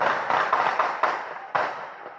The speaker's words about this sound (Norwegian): Det er ikke mulig å se noe på filmen en nabo tok opp utenfor nattklubben Pulse natt til søndag, men skuddsalvene som drepte 49 mennesker, høres godt